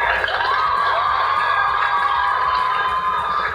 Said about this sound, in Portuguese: Uma salva de palmas.